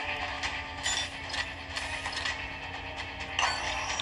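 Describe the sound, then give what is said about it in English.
In a video game, a mechanical door to the offices grinds open after a switch is flipped, with a steady motorized hum and rattling, ratchet-like gear noise, continuous for about four seconds, with no voices. “That opened the door to the offices, uh, which is where she said people should live, in the door marked offices.”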